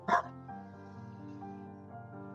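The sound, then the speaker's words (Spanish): A single sharp dog bark rings out loudly at the start, followed by a soft, steady musical drone that continues underneath. “Como nos maravillaríamos del ladrido de un, perro.”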